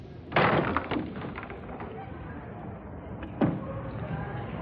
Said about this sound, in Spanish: Diego abre la puerta de su casa.